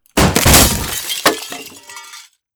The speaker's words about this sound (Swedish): Så med ditt sista desperata slag så träffar du och rutan går, går sönder och eh, den är öppen redo att kastas ut igenom.